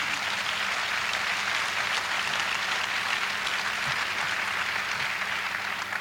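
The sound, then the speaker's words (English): An audience claps steadily for several seconds, a dense, even wash of many hands with no pauses or individual beats standing out, and no voices over it. “Go ahead and clap if you want to clap.”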